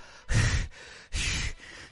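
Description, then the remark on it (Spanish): A person imitates panting as if out of breath from running to catch a microbus, two loud, rough breaths in quick succession, each a broad airy burst with a short pause between them. “Es que casi me deja el, microbús y me tuve que venir corriendo. ¿Unos jadeos?”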